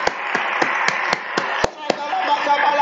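About eight sharp hand claps in a steady, quick rhythm, roughly four per second, over a continuous murmur of praying voices, the clapping done as part of prayer. The clapping stops shortly before the end while the voices carry on.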